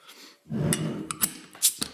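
A beer package being opened: a low rustling, handling rumble followed by several sharp clicks and snaps at irregular intervals, with no one talking.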